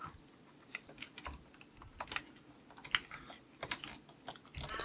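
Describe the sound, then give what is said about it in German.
Rapid, irregular clicking of a computer keyboard and mouse, fairly quiet, with sharp taps scattered over nearly five seconds and no talking. “Hier kann man ja schlecht verhindern, dass, äh, dass ich klicke.”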